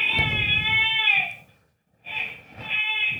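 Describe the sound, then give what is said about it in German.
A young child cries in two drawn-out, high wailing bursts separated by a brief pause, fairly clear and steady, with no talking over it. “Schnell, schnell, Kind weint.”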